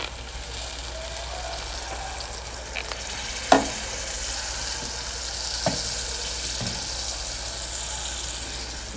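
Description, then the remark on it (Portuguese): Steady sizzling hiss from a hot pan as a little more water is poured onto cooking rice, with a few sharp knocks and clicks breaking through the continuous frying sound; no one speaks. “Cara, vou, vou meter mais um pouquinho d'água.”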